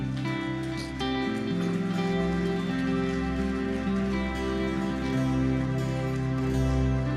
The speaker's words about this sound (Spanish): ¿Quieres ponerte de pie? Por favor, dale un aplauso fuerte a Dios.